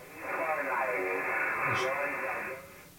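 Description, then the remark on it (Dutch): Band-limited amateur radio receiver audio on the 10 meter band, received through a multiband dipole antenna, with a hissy, narrow tone and faint voice-like warbling drifting through static, steady for about three seconds before fading slightly. “Eh, nu, kijk, nu luister ik uit eh, eh, ook op de 10 meter band.”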